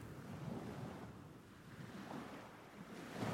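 Sea waves wash steadily onto a shore, a broad continuous rushing roar that swells and recedes, with some wind buffeting in the background and no voices.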